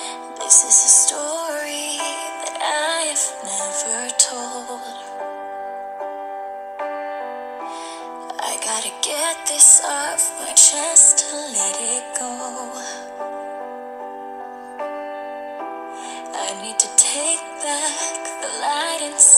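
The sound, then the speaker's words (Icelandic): A song plays steadily, with a wavering sung melody over sustained, held instrumental chords, the voice rising and falling in phrases with brief pauses between them. “hér kemur það hlustið andal og textan”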